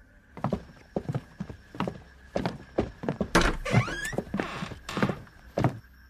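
A classroom door creaks slowly open partway through, a drawn-out whining scrape, amid a steady series of heavy, evenly spaced thumps that continue before and after it. No voices.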